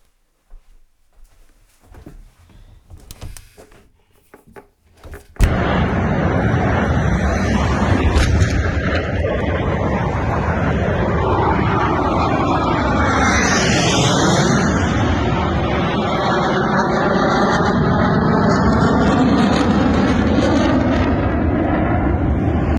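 vehicle, airplane flying past

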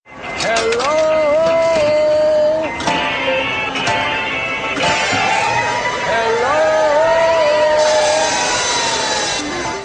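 sound effect, spoiler alarm sound effect

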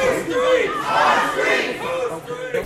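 crowd, protest crowd chanting slogans

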